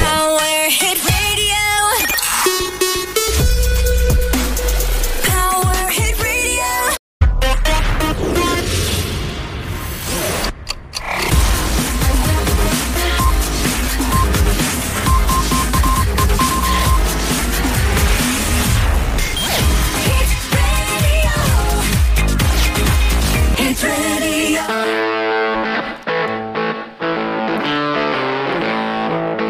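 A loud music track plays on its own with no talking, driven by gritty, distorted guitar and a steady beat, briefly cutting out twice before easing into a sparser melodic ending.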